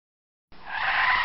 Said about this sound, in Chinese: 车子突然刹车停了下来